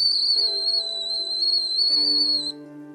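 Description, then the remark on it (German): A kettle of water on the boil whistles with a shrill, steady high-pitched tone that wavers slightly, holding loud for about two and a half seconds before cutting off, with low sustained musical tones underneath. “Sie setzt einen Kessel mit Wasser auf und Miss Burgundy durchfährt eine leichte Erleichterung, als der Kessel anfängt zu pfeifen.”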